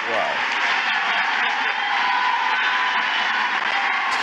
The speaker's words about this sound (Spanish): ¿Verdad que tenemos un buen secretario de gobernación? Ovación de pie.